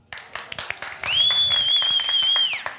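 Scattered clapping from passengers on a flight as the plane lands in their home country, followed by a long, loud, steady whistle that rings out over the continuing applause before trailing off.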